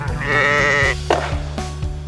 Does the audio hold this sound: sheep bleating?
yes